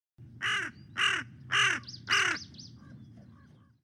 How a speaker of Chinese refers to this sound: 而这个呢是小嘴乌鸦的叫声